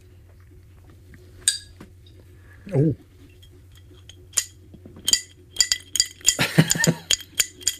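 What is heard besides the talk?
glasses clinking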